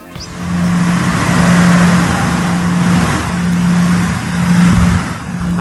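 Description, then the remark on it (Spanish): An amplified recording of a low-frequency sound: a steady, loud low-pitched droning hum rumbles on without pause, like an idling diesel engine or a washing machine, with a broad noisy wash above it and a slight swell in intensity midway. “Se trata de un sonido de baja frecuencia, no todos pueden escucharlo, pero los que sí lo oyen declaran que es como una lavadora o un motor diésel que no se calla nunca.”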